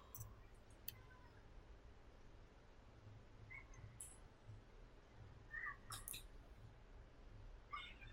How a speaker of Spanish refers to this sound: Ah, no, no es un perico, son los, este, los niños.